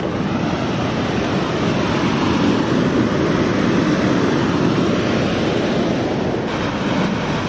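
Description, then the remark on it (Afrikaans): A roaring waterfall with strongly flowing water fills the whole recording with a dense, steady rush of water, loud, holding an even level throughout with no voices or breaks. “ek weer gekyk het na die water se sterre se se vloei se hydroloof hoe sterk dit begin loop.”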